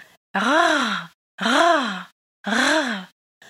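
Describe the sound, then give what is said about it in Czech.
A voice demonstrates the guttural French R three times, produced in the throat, each a throaty, raspy voiced rumble lasting under a second, evenly spaced with short pauses, fairly loud. “Jak správně vyslovit francouzské R”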